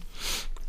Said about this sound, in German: aber ich muss mal Tee trinken, weil ich immer so husten muss.